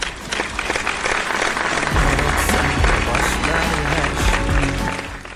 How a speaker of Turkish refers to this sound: Alkışlar Turgay'a.